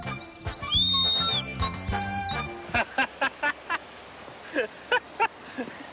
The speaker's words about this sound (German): Ja, schneiden das Mundstück ab und von dem schnitzt man dann da links eine Scheibe weg, damit es flach wird. Weil da muss ja dann die Luft durch, damit das Pfeiferl pfeift. Zusammenstecken und ausprobieren.